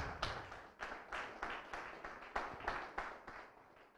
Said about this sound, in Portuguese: Vamos aplaudir o Senhor por causa disso.